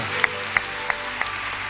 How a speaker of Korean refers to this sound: 우리 하나님께 영광의 박수 올려드리겠습니다. 할렐루야.